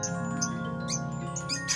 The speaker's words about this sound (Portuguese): Pois quando ela voltou para casa, quando ela pisou no reino, ela percebeu: ah, ela ouviu o primeiro canto de passarinho.